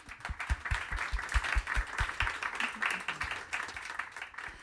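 An audience applauds the panelists steadily for several seconds, a dense, continuous patter of many hands clapping at once with a few sharper individual claps standing out, holding at a fairly even loudness throughout.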